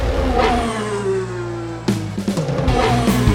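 A rally car engine revs hard up close, its pitch sweeping down before a sharp burst of throttle blips and roaring acceleration, loud and mechanical with no voices.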